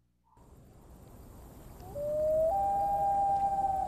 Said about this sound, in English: Yeah, oh, it's, it's, a haunting noise, but they just oh yeah, so worth cool. it, man. I didn't know that's what that noise was. That's, a, that's yeah, the, black throated loon, and it definitely deserves to be.